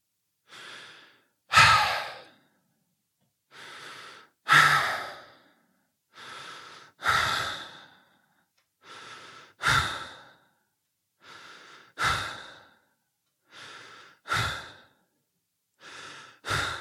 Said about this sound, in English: And so let me let me do it really kind of obnoxiously, but let me show you what 20 respirations a minute sounds like. I'm going to kind of do it for you.